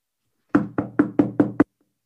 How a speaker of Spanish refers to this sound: toca la puerta.